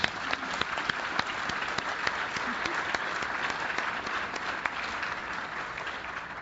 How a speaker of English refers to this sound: can everyone here who was part of Vacation Bible School and who's part of children ministry and youth ministry stand up for me? Anyone who's who's helped and volunteered in that? Well, that let's give a huge round of applause for all of you folks.